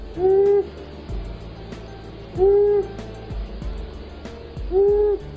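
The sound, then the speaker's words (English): A male long-eared owl gives three low, drawn-out hoots spaced about two seconds apart, each clear and fairly loud over a quiet, steady background hum with no talking. “And our bird doesn't just bark, the male also vocalizes with a hooting sound that can be heard more than a mile away.”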